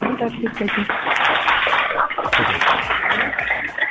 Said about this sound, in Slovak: Tak uh, viete, viete, prosím vás, iba tak ukázať, že ste tu jedným veľkým potleskom?